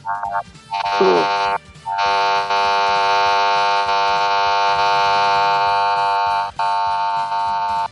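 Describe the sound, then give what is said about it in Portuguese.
A blender whirs loudly, a short burst and a quick rising whine before it settles into a steady, buzzy motor drone that runs for several seconds, with no voices. The blender is being used to make dinner. “Ele tá batendo, tá usando liquidificador pra tá fazendo janta.”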